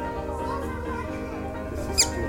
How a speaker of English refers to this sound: Well, I had a chance to spend some quality time with Stu. And I have to tell you, for a whistling duck, I couldn't get him to whistle. Can you hear that? He's chirping. He's clearly chirping.